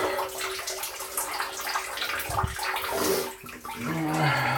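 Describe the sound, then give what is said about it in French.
A hot shower runs steadily under pressure, a dense hiss of spraying water that stays fairly loud throughout, with a brief dip partway through and a faint voice murmuring at the end. “Tu chantes sous la douche euh, non, en général, non.”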